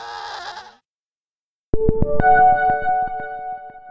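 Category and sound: animal, goats bleating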